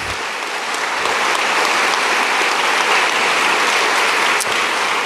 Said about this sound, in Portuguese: E agora uma pergunta para vocês: quem aqui é prefeito? Levanta a mão, por favor, ou prefeita. Caramba, bastante. Uma salva de palmas aí para vocês.